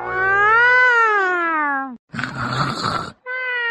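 A fat cat settling down to sleep on cotton in a cotton field gives a long, drawn-out meow that rises and then sags in pitch, followed by a rough, breathy grunt and the start of another short meow, with no talking.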